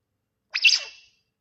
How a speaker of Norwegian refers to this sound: Fordi jeg kom over en video mm. av en grå papegøye som bestiller pulled pork. Mm. På, gjennom, gjennom Alexaen til eieren.